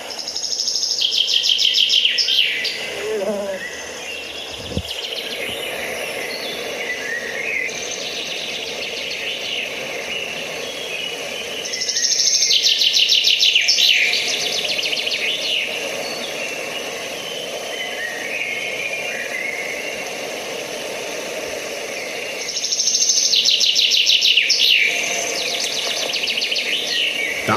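A male common chaffinch sings three bright, descending trilled phrases about ten seconds apart over a steady outdoor hum of insects and other birds, with one soft thump near the start.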